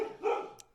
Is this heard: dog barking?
yes